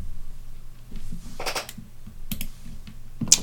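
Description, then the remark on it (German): Someone typing on a computer keyboard while looking something up online, with irregular bursts of quick key clicks and short pauses in between, ending in a sharper click; no one speaks. “Ihr hört die Tastatur.”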